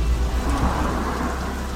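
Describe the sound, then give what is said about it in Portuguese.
Steady, heavy rain hisses continuously for the whole moment, with a deep low rumble underneath like thunder. No voices, just the dense wash of falling water. “Uma trufa, uma laranja orgânica e uma chuva.”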